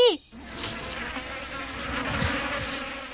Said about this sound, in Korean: 어? 이게 무슨 노래? 모기다 모기.